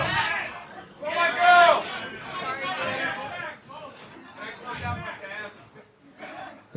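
Overlapping voices of a crowd chatter and murmur in a busy, commotion-filled space as people pack things away, with no single speaker standing out and a steady babble lasting throughout.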